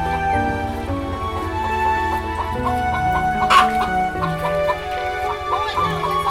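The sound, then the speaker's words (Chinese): A busy farmyard chorus of chickens clucking and other poultry, including ducks and geese, calling, steady and overlapping throughout, with a few sharper squawks standing out and faint voices murmuring underneath. “在这里，我们光是一边聊天，就各式各样的鸡鸭、羊、鹅、狗、山羌、山猪、猫头鹰、肉食蜂。”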